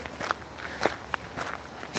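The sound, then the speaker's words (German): Footsteps crunching through a thick layer of old dry fallen leaves in a forest, several crisp rustling steps in an uneven walking rhythm, fairly quiet, with no voices. “Ich mag es einfach, wenn alles so mit alten Blättern voll ist. Wenn man durchgeht, dann hört es sich so, ja, spannend an.”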